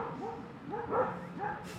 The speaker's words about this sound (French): Oh là là, il y a un combat de chiens et de sangliers.